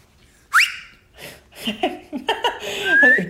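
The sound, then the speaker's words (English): A person gives a short rising whistle, followed by bursts of laughter, then another thin, upward-sliding whistle near the end. “The idea that you would never put your kid in nappies, um, you pop them over the potty and you whistle, and then, oh, I can't whistle.”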